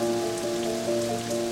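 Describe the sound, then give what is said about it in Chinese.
Heavy rain pours down on a stormy night with lightning, by a small stream, in a dense, steady hiss that never lets up, with a low sustained hum running underneath and no voices. “混沌的雨水冲刷着一个浑身血污的男人，他的脚下汇成一条细长的血河。”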